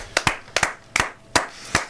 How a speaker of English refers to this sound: Spontaneous round of applause.